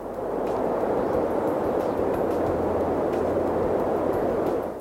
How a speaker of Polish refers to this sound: Medium wind. Tu mamy wiatr. Zaznaczone. Medium wind.